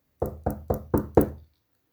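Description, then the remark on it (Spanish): Five firm knocks on the wooden door of a house at night, in a steady, even rhythm, fairly loud, followed by silence. “Llamó a la puerta.”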